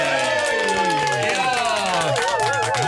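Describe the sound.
A brief round of applause with cheering voices and rising, wavering whoops layered over it, loud and steady for the full few seconds.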